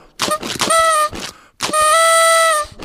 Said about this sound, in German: Nochmal einen Versuch mit der Tröte.